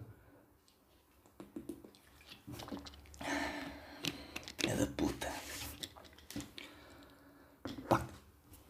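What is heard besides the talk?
drinking water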